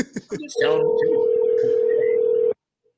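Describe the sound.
A brief snatch of talk gives way to a single steady electronic ringback tone, loud and unbroken for about two seconds before cutting off into silence, like an outgoing phone call ringing.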